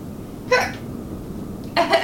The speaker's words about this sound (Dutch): Heb ik weer de hik?